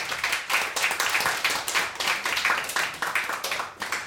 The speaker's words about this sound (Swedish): En applåd